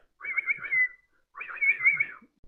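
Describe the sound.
Two warbling whistled bursts, each under a second, imitate a bird's call while a flock of small birds circles overhead. The trilling notes wobble rapidly in a high, steady register, with a short pause between them and no talking.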